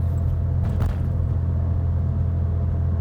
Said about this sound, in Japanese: この走行音もこのぐらいがなんとか抑えられてたら実際の耳で聞こえてくる音結構この車うるさいんですよねなのでこの音がマイクでどのぐらい拾っちゃってるのかっていうのが気になりますが